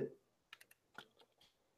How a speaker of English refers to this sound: did you hear it? It sounds like the tiniest little mechanical noise you can you can think of. That noise is actually the autofocus.